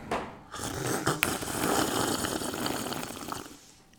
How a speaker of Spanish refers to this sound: Ahí sí, nuestro tradicional sorbecito para los pods escuchas. Ahí va.